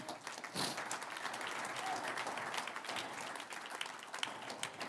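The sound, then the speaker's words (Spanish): An audience at a Spanish-language church service applauds the Lord after a prayer, many hands clapping in a dense, continuous patter of crisp claps that holds at an even level for the full stretch, with no voices rising above it. “Un aplauso al Señor.”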